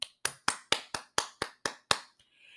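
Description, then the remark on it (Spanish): Hands clap in a steady, even rhythm, about nine crisp, sharp claps in quick succession, then stop, leaving a faint hiss. No one speaks. “Así que un aplauso para ti”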